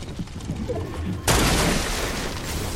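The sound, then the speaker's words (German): A single loud, sharp sniper shot from a video game, fired by enemies sniping from above, cracks out midway after a low rumbling background, followed by a sustained, noisy roar of gunfire that slowly fades. “Boah, nee, die snipen von oben.”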